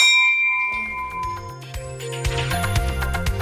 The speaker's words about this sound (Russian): рында. Морской колокол. Кто хочет, может ударить.